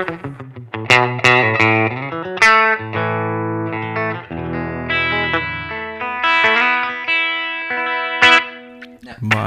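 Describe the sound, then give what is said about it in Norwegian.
Short instrument notes and chords ring out with a room reverb effect, each tail lingering and overlapping the next, giving the spacious, open sound of a large studio room. “Høres ut som et Et litt sånn Et studio. Et stort rom.”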